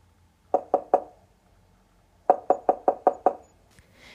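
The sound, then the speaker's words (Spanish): A girl knocks on the wooden door of her grandmother's house: three quick raps, a pause of over a second, then six more evenly spaced knocks. No voices are heard. “Al llegar llamó a la puerta.”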